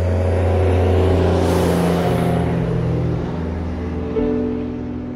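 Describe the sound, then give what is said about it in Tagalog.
A bus engine drones steadily with a broad rush of road noise, its low hum shifting pitch a couple of times as it drives along the highway. “Pumara ako ng bus at mabilis na sumakay.”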